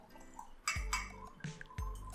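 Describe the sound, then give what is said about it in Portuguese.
Several glassy clinks, three or four sharp knocks spaced unevenly, with a soft liquid splash and low rumbling handling noise between them, as an intern pours and serves water and sets glasses down. “servindo até água.”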